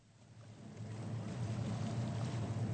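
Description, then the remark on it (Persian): A steady low engine drone of a ship moving through water as it gradually approaches the Lorelei rock, with a broad wash of water and wind noise swelling slightly louder over a few seconds, no voices. “در این بین مسافرین ما قسمتی از راه رو پیمودند و کشتی کم کم به صخره لورلای نزدیک میشه.”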